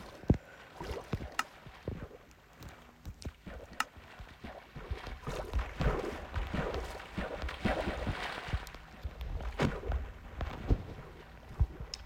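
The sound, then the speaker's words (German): Rowboat paddling through water in a video game, with repeated splashes and sloshing strokes at an uneven rhythm over a steady watery wash. No voices. “Komm her, Boot!”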